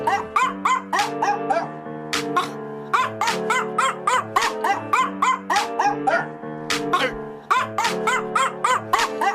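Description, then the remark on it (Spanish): A chorus of New Guinea singing dogs howling in rapid, overlapping bursts of high, warbling, pitch-sliding cries, loud, with a few sharp yips breaking through the steady pulsing rhythm. “son lo que llaman los perros cantores de Nueva Guinea”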